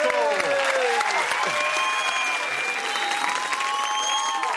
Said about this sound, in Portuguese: Vamos aplaudir